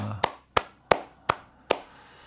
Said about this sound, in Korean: 아, 축하드립니다. 박수 한번 주시죠.